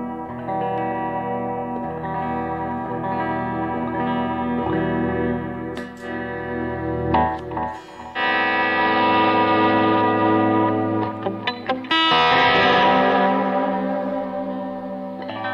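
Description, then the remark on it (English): An electric guitar run through a delay pedal, sustained chords and notes smearing into repeating echoes that wash together into a dreamy, shimmering wall of sound, with a brighter swell near the end. “That's more delay to that.”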